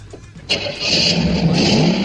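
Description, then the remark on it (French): A car engine cranks briefly, then catches and roars to life, settling into a loud, steady rev with a rising whine partway through. No one speaks. “Allez, vas-y, fais la ronfler.”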